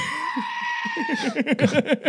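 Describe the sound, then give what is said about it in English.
A goat lets out a long, loud, piercing scream that wavers and then drops in pitch, with choppy rhythmic bursts, like laughter, pulsing underneath and growing stronger toward the end. “Goat screams are possibly my favorite thing in the world.”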